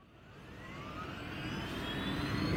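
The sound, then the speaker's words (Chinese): An airplane engine spools up: a broad, rushing roar grows steadily louder while a thin whine glides upward in pitch the whole time, with no voices. “男人四处看了看，坐到了驾驶室里，发动了飞机。”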